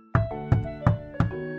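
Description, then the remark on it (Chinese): Four firm knocks on a door in a steady, even rhythm, each a sharp thud with a short ring trailing after it, with no voices. “有人在敲门。”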